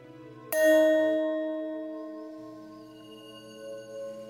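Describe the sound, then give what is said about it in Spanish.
A single meditation bell is struck once to begin a meditation, ringing out clearly with a bright attack and a long, shimmering resonance that slowly fades over several seconds against a quiet background hum. “Voy a tocar la campana al empezar y al terminar.”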